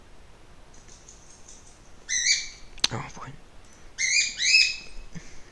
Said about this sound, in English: No, Ruby. My bird is just bonkers, bro.